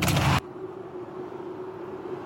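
Traffic noise comes through a car window rolled down while stuck in traffic: a brief loud rush of wind-like noise at the start, then a steady low rumble with a constant mid-pitched engine hum, and no voices.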